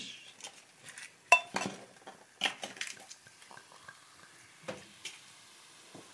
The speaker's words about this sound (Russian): Я, я не умею наливать шампанское. Зато умею открывать, смотрите. Но ну, с третьего-то раз должно получиться.